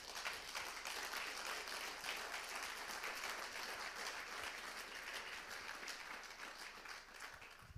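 An audience gives the youth pastor an extra round of applause, dense overlapping claps forming a continuous crackling wash that holds at an even, fairly loud level throughout and eases slightly toward the end.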